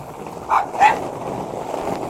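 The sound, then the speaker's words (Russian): A dog gives two quick barks in close succession at a skateboard, moderately loud against a steady background rumble, then falls quiet while the low noise continues. “Некоторые собачки не любят очень скейтборды.”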